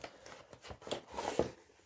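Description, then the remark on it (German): The cable of a wired, non-wireless keyboard is pulled out of its packaging, with brief rustling and crinkling of plastic and a few soft scraping handling noises, and no voices. “Das Kabel ist einfach nur hier so separat und Warte kurz, ich hol's raus.”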